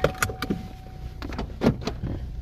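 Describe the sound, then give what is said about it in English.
A car's door locks clunk shut in a quick series of mechanical clicks and thuds, with a faint steady tone and low rumble underneath. “I got my phone, locked the door”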